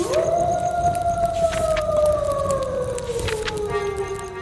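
A single long wolf howl swells up quickly, then holds and slowly sinks in pitch over several seconds, heard clearly over a steady, noisy background with no talking.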